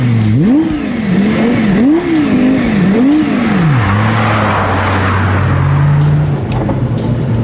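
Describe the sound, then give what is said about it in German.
A Lexus LFA sports car engine revs up and down in several quick, loud surges, then settles into a steady high drone as the car drives on, with no talking. “Ja, liebe Hörer, jetzt sind wir tatsächlich in diesem super tollen Auto unterwegs, dass wir im Moment noch ziemlich langsam fahren, hängt einfach damit zusammen, dass das nicht Autos sind, die man so unbedingt auf normalen Straßen fahren würde.”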